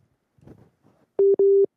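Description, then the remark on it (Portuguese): A faint, muffled voice briefly murmurs, then a loud telephone busy tone sounds as a WhatsApp call drops over a bad internet connection: two steady, clipped beeps in quick succession. “Ih, o senhor presidente está com a internet ruim.”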